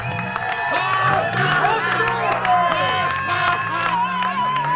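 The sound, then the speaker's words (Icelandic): A crowd at a protest at a police station claps steadily amid loud overlapping voices and chatter, the applause a dense patter of sharp hand claps that continues throughout without pause. “Fólk klappar.”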